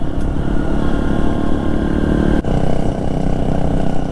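A dirt bike engine (a Honda XR150L or KTM XCF-W 350) drones steadily and loudly while riding a rough, dusty trail in the Pisgah Ranger District, with a rough low growl and layered harmonic whine, briefly dipping for an instant mid-clip before resuming at full throttle.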